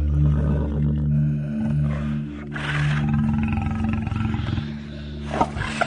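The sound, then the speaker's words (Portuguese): A lion roars, deep and loud, in a long rumbling growl that swells in several heaving pulses over about six seconds, with no voices present. “No caminho, um leão o encontrou.”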